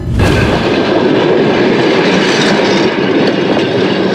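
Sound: passing train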